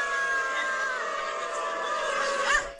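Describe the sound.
Hundreds of people in Berlin imitate dogs, their many voices merging into a dense, continuous wash of howling and barking that stays loud and steady, swelling briefly near the end.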